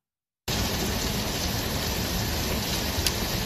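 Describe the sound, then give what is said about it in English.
After a short silence, heavy rain mixed with hail pours down steadily onto a porch in El Cerrito, in the Bay Area, on a chilly day. It makes a dense hiss of drops drumming on a hard surface, with no voices. “Yeah, mix of rain and hail pounding parts of the region today here in El Cerrito.”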